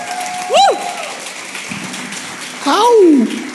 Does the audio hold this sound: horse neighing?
no